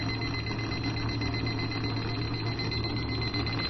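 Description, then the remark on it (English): A liquid level indicator, the latest model from RNIB, buzzes continuously as liquid poured into a cup reaches the rim: a steady, fast-pulsing electronic drone that holds at an even, moderate loudness from start to finish with no voices over it. “So you can hear it's a constant vibration and a much faster beat.”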